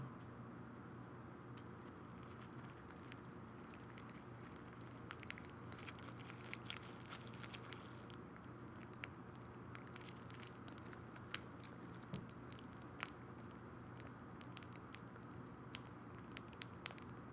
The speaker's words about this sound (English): Now we are going to add our milk and we're going to sit here and we're going to listen to it snap, crackle, and pop, hopefully. Here we go. Here we go.